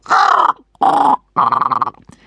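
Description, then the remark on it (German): Three loud, harsh crow caws in quick succession, each about half a second long and separated by brief pauses, with no talking. “Die Krähen folgen ihm auf Schritt und Tritt.”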